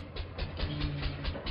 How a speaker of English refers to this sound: That's the sound of a producing oil well and the sound of a smart investment.